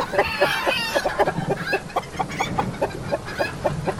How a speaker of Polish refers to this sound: Czy ktoś wreszcie uciszy tę kurę?